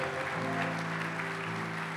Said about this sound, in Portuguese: Dê um brado ao Senhor. Aplaudo nesse lugar e adoro Oh!